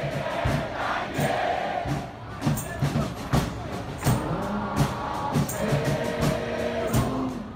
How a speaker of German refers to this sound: Menschengruppen, die Kabamaki-Bu singen. Ein Revolutionslied, dessen Titel so viel bedeutet wie Bis zum Ende der Welt.